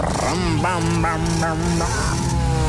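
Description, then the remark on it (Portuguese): A voice imitating how rock music is played buzzes and growls like a revving motorbike, pushing up in pitch in several quick surges over a steady rumbling drone, fairly loud for nearly three seconds. “Isso parece uma moto”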